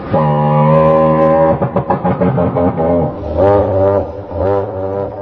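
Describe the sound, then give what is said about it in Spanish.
A scientific reconstruction of a Tyrannosaurus rex call, from research led by physiology professor Tobias Riet: a loud, deep, droning bellow with rich low harmonics, breaking into a throbbing, pulsing stretch before swelling into a moan-like rumble again. “Si respondiste T-Rex o Tiranosaurio Rex, muy bien.”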